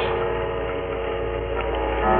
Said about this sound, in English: It was midnight. All the clocks in the shop began striking the hour, and louder than all the rest was the chime of the evil clock.